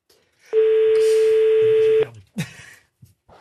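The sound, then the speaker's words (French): A phone call to a man in Romanèche-Thorins, Saône-et-Loire, France, during the show Les Grosses Têtes: a single long, steady ringback tone sounds loudly over the line for about a second and a half, then cuts off, followed by a few faint clicks and brief noises. “Première sonnerie.”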